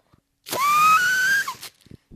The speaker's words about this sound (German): Das war der Luftballon, der in der Tüte war.